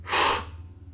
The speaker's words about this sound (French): Et tu vois déjà que le fait de, prendre cette grande inspiration et cette d'expulser l'air sur une expiration qui est courte et brève, déjà, ça fait remonter l'énergie en toi.